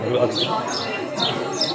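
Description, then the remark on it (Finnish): A small bird chirps in short, bright bursts, about four quick calls repeating through the moment, over a low murmur of background noise. “Ärsyttävä tuo lintu, sori.”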